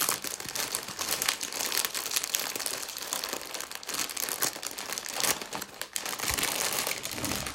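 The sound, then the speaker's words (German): Continuous crinkling and crackling of a plastic package of chips being tugged and squeezed while someone tries to open it, with dense irregular rustles and a few sharper crunches, no voices present. “Wie kriegt man die auf?”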